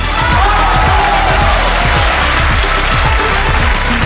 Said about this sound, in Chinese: 接下来，让我们用最热烈的掌声，有请出王刚导师和他的六位战队成员，掌声有请！